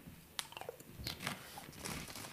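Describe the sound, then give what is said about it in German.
Crisp crunching as someone bites into a chocolate-rimmed waffle cup, a few sharp crackly snaps followed by softer chewing crunches, with no talking. “Das ist ja das, was viele sagen ein Unding beim Podcasten währenddessen zu essen”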